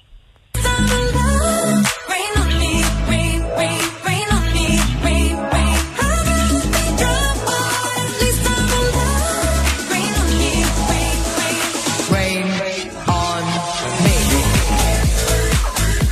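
An upbeat dance-pop song plays loud and steady, with a driving beat, dense synths and a pounding bass throughout, the music filling the whole stretch after a brief silent start.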